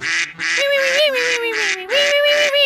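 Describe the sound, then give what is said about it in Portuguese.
A goose honks loudly, about seven harsh, nasal honks in a rapid, nearly continuous run with no other sounds around them. “Passo a meia-noite a grasnar sem parar.”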